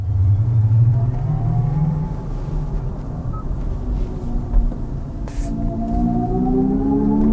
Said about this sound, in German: Für Menschen, die die Laufruhe von Elektroautos nicht ertragen können, wollen Hyundai und Kia eine Brücke bauen. Künstlicher Motorsound über Lautsprecher ist ja bereits Stand der Technik. Wir hören nochmal rein.